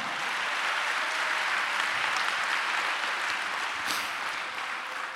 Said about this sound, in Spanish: Eso, denle un aplauso a Dios, hermano, ya estamos acabando.